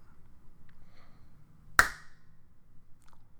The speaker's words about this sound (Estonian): ei, tee siis see plaks, oota nüüd, anna sekku.